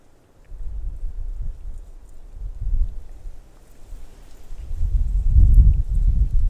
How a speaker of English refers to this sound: So much wind.